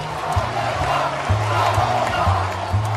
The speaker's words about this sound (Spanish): ¡No! No, decía Borrell mientras la gente gritaba Puigdemont a prisión. No crideu, no crideu con les turbes del circo romano!